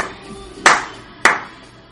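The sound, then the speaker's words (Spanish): Two sharp, loud hand claps about half a second apart, each with a brief ringing decay, over a faint background hum. No one speaks. “No me aplaudas que se me va La gente está aplaudiendo del otro lado.”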